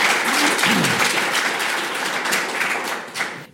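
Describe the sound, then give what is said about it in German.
Steady audience applause welcoming guests to an evening presenting four books, a dense wash of many hands clapping at an even loudness for about three seconds, then tapering off abruptly at the end. “Herzlich willkommen und schön, dass Sie alle da sind. Applaus”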